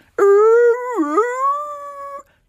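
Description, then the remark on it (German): A dog sings along in a single sustained howl like a werewolf, lasting about two seconds and loud, its pitch dipping briefly in the middle before rising and holding steady, with no other sounds around it. “dat der singt mit, hult as ein Werwolf.”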